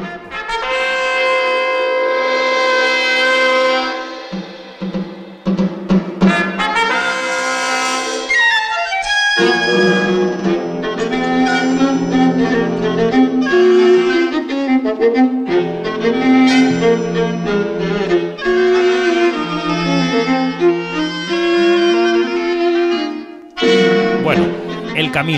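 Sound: film soundtrack music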